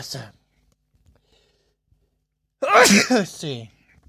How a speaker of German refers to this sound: Gesundheit. Gesundheit.